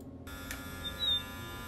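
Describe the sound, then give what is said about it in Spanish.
A doorbell intercom buzzer, rung from the building entrance downstairs, sounds with a steady, harsh electric buzz that holds for under two seconds at moderate volume, with no talking. “Están tocando el timbre y la cámara no anda para ver quién está abajo.”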